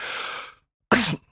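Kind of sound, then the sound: human body sound, a person sneezing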